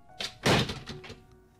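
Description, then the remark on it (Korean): A front door is slammed shut by a man leaving the house, with a heavy thunk and a brief rattle, preceded by a softer latch click, leaving a short fading resonance and no voices. “내가 잔소리를 퍼붓자 듣기 싫었는지 그는 잠시 후 현관문을 쾅 닫고 나가버렸다.”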